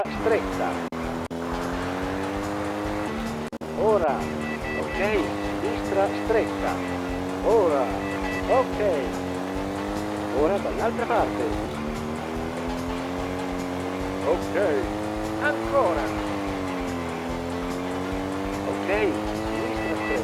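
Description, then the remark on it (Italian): Motorcycle engine sounds from a paid audio motorcycle racing game: a loud, continuous droning whine whose pitch rises and dips through throttle changes and gear shifts, running steadily for the whole stretch. “Un avversario ti sta raggiungendo. Ma una cosa proprio anomala di questo audio moto che peraltro è anche a pagamento.”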